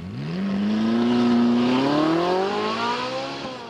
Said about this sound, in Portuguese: De um lado, um burro pachorrento, do outro, um carro que todos cobiçam. Os dois aquecem os motores.